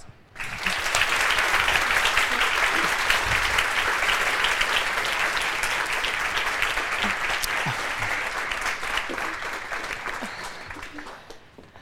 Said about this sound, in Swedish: Så nu återstår det bara för mig och er att välkomna gästerna upp på scenen. En varm applåd.